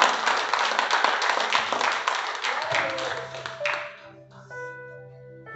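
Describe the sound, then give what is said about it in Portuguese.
A church audience applauds for a brother with a dense, steady wash of many hands clapping for several seconds, then the clapping fades out as sustained keyboard or organ chords take over. “Você pode aplaudir a vida do irmão?”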